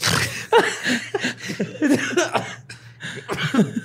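A held-back sneeze that never comes and slides into a yawn: a string of breathy gasps and short voiced bursts over about four seconds, moderately loud, with no clear speech.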